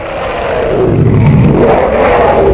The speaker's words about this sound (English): I get off three shots, one of them embeds in its cheek. I see it react and hear an unholy roar like nothing from this world.